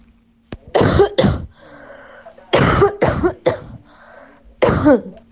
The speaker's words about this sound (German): Das war Huster Nummer 1. Jetzt kommt Huster Nummer 2.